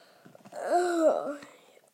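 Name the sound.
yawn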